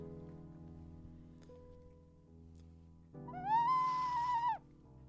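A Spanish clay ocarina (clay whistle) sounds a single breathy, hooting note that slides up, holds steady for about a second, then drops away, played fairly loud over a low, steady background hum.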